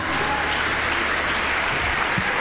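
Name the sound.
audience applauding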